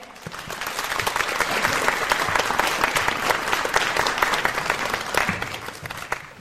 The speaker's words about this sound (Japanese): どうぞ拍手でお迎えくださいませ